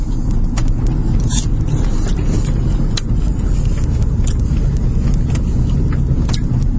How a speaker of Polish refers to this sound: My też jedziemy Seatem, troszkę większym Seatem, Alhambrom i wszystkich miłośników Seatów pozdrawiamy.